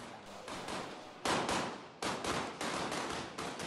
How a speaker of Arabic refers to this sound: ومع صوت الدكتور في صوت قوي من بعيد هاي قذائف رصاص بنسأل بعض مش فاهمين